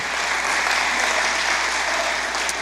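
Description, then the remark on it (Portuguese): An audience at a church service applauds Jesus steadily, a dense and even wash of many hands clapping at once, loud throughout with no voices standing out. “Glória, pode aplaudir Jesus.”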